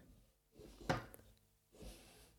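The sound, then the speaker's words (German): A desk drawer slides open with a low wooden rumble and a sharp click midway, followed by a second, softer scraping slide. Quiet, with no one talking. “Okay, ich habe jetzt gerade eine Schublade in meinem Schreibtisch aufgemacht.”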